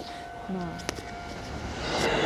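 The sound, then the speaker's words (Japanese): An electric train draws near with a building rumble and rising wash of noise, a sharp metallic clack partway through, with some faint voice-like sounds in the background. “おお電車来たはいしばし電車の音をお楽しみください。”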